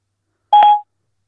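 A single short electronic phone tone, a quick bright beep of about a quarter second, as Siri places a call to a mobile phone, sounding alone and fairly loud against silence.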